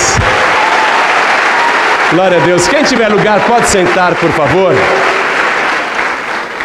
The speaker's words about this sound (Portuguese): Você crê nisso? Então vamos dar mais uma salva de palmas para o Senhor. Glória a Deus.